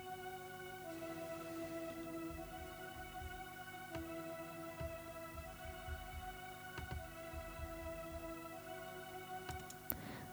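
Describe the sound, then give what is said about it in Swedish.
A soft synthesizer pad opening the intro of a song holds a steady, sustained chord throughout, quiet and smooth, with a few faint low thumps and clicks underneath and no voices. “Jag tänker att jag börjar helt enkelt, jag kan visa från introt, så jag har en, jag börjar och har lagt en pad.”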